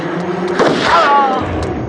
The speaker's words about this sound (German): Der Schuss zerfetzte ihm die Lunge. Er war auf der Stelle tot.